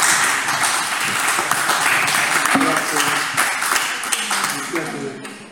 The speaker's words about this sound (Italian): Grazie, non so se avete domande o qualche altra curiosità, però un applauso all'autore